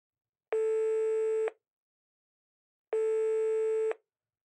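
A telephone ringback tone sounds twice as a room's built-in phone calls the front desk, each a steady, even electronic buzz lasting about a second, separated by a pause of silence. It is clear, with no talking.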